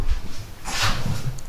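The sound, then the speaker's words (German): A male house cat lets out a single short, breathy noise, a noisy snort-like hiss lasting under half a second, over low background rumble with no talking. “Das war mein Kater.”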